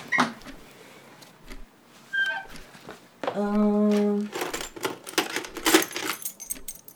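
A bunch of keys jingles in repeated shakes and rattles, with a short, steady droning tone partway through before the metallic jangling resumes.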